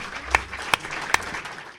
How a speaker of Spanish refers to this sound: Yo creo que esto, necesita ya un aplauso de primeras, que quede bien claro.